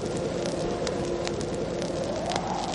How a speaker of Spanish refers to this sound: A su lado hay un fuego bajo un pequeño bidón como chimenea.